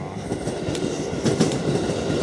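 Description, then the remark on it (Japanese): A train rolls past a railroad crossing, a steady loud rumble with rhythmic clattering of wheels over the tracks, heard alone without any talking. “ね、今ちょっと踏切待ってます。”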